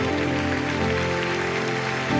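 A church audience applauds the King of Kings during a morning worship service in a dense, steady wash of clapping that runs throughout, with sustained musical tones holding underneath and no voices speaking.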